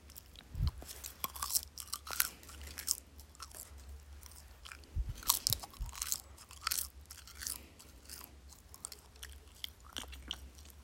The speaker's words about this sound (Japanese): まあ、コカの葉っぱ買いましたこれコカインの原料になるので日本に持って帰ると捕まるらしいですでこれ噛むとなんか海苔みたいな音がするのでちょっと是非聞いてください